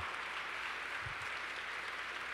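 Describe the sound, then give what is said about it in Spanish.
An audience at a sermon claps steadily throughout, a dense, continuous wash of many hands applauding, with no voices standing out. “Y ojo, el aplauso para Dios, porque yo no hice nada, yo simplemente moví los labios y hablé y el Espíritu Santo hizo el trabajo.”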